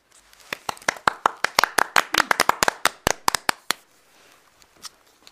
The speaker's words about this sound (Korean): 네, 너무 저희가 흥분해가지고 중간에 끝나지도 않았는데 박수 쳐. 아, 그 옆 사람 눈치 보고 쳐야 되는데.